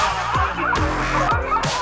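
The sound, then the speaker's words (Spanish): Dogs bark loudly in a quick, steady series of about four sharp barks, with a continuous noisy background filling the gaps between them. “Miren los perros.”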